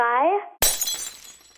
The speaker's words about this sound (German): Die 3 wird umgedreht. Zerbrechendes Glas haben wir da.